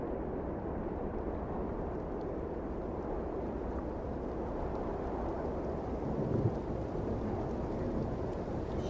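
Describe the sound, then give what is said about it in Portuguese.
A steady, dense roar of rain with a deep rumbling undertone, continuous and fairly loud throughout, like a heavy downpour drawing near with no voices present. “Perceba o barulho da chuva que está se aproximando.”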